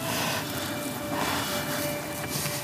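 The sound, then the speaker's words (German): A steady, airy roar of aircraft passing overhead near a residential area while a group of ten deer is watched during a hunt, with a faint whining tone running through it, holding an even loudness throughout with no voices. “Wir erspähen einen Sprung von zehn Rehen, ganz in der Nähe eines Wohngebiets und während Flugzeuge über uns hinwegfliegen.”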